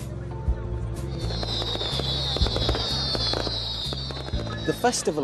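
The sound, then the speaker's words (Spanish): Fireworks at the festival of Saint Agatha in Catania, Sicily: dense, rapid crackling bursts and pops, with a long high whistle sliding slightly downward, over a steady low rumble and faint voices. “Se pueden ver fuegos artificiales y degustar los tradicionales filetes de carne de caballo.”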